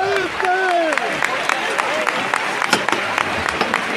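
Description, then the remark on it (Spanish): A crowd applauds outdoors in the Plaza del Salvador as the nazarenos of the Señor del Beso de Judas procession enter the collegiate church: dense, steady clapping runs the whole four seconds, with a few sharper claps standing out. Voices rise and fall over it during the first second or so. “Entre aplausos.”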